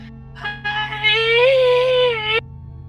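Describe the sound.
A voice imitates the crying wail of a child who has fallen over and calls for its mother: a short whimpering onset, then one sustained, strained, rising-and-falling cry lasting about two seconds, loud, ending abruptly.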